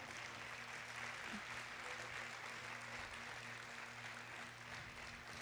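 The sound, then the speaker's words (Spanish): A church audience applauds for the Lord, a dense, steady wash of clapping that holds at the same loudness for several seconds, with a low sustained hum running underneath. “Dale otro fuerte aplauso al Señor.”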